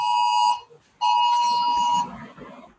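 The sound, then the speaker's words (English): A loud, piercing electronic emergency alert tone for the curfew in St. Louis sounds in two bursts, a short one and then a longer one after a brief gap, with a steady high pitch and faint background murmur as it stops. “I was going to say, wait, are you guys under a storm warning? No, it's our curfew.”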